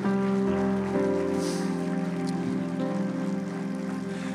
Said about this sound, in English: Come on, let's give God a hand clap for what He's doing.